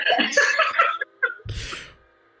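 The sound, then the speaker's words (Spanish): A single forceful sneeze bursts out after a second of breathy, laugh-like vocal sounds and a quick intake of breath, then fades into quiet. “Salud.”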